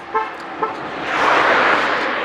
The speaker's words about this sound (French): Par exemple, là, pourquoi Pourquoi il klaxonne Il a largement, regardez les amis, il a largement la place de passer a un mec, qui klaxonne.